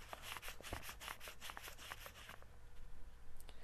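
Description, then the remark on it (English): A dollar bill is crinkled close to a lavalier microphone, held at about mouth level: a dense run of crisp, rustling crackles for about two seconds, then it fades to soft, sparse rustles. No one speaks. “And here it is closer to me at about my mouth level.”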